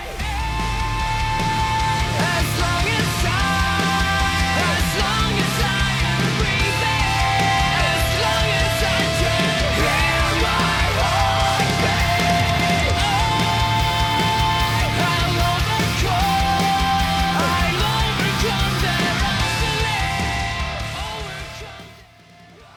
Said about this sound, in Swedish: sista spåret på den EPn … tycker jag är riktigt grym